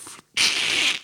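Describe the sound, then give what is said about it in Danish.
A voice imitates the pages of a book, painted together along their outer edges, being pulled apart as the book is opened: a brief crackle, a short pause, then a sustained, fairly loud rasping rip lasting under a second, with no talking. “lyd af mine sider, der bliver skilt.”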